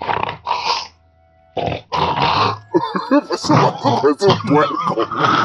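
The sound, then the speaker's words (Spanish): A person mimics a Sasquatch with a few gruff, throaty grunts, loud, broken by a short pause, then dissolves into laughter and lively voices. “¿Puedes imitar el sonido de Sasquatch?”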